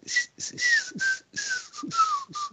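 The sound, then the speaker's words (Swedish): Breathy, hissy whistling through the teeth with the mouth open in a smile: about eight short airy bursts in an uneven rhythm, each carrying a faint tone that slides slightly downward. No talking. “Den där extremt coola visslingsgrejen du kan göra med tänderna.”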